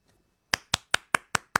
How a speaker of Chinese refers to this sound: 需要为他为他们带来点掌声。